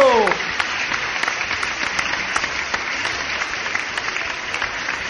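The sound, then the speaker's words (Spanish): Sustained studio audience applause welcoming a special guest on the show Manos a la Obra. A dense, steady patter of many hands clapping at a fairly loud, even level throughout, with a brief voice trailing off at the very start. “Y esta tarde tenemos un invitado muy especial, el cual les quiero presentar y quiero que lo reciban con un fuerte aplauso.”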